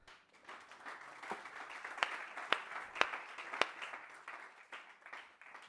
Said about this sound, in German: dem Lobpreisteam. Gib mir einen Applaus.